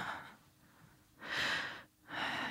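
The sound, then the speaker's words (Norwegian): A deep, airy breath drawn in slowly and then released, following the tail of an earlier exhale. Soft but distinct, with no talking. “glemme å puste.”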